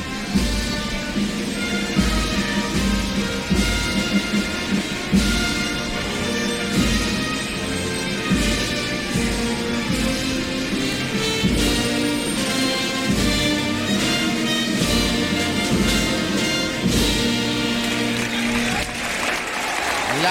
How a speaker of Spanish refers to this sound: En todas las plazas de lances de futuro se instrumenta el himno nacional. Vamos a oírlo.